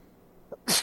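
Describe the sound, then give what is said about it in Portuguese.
A single sharp sneeze, preceded by a brief quick inhale, then a loud burst of breathy noise lasting a fraction of a second, with no talking. “Saúde.”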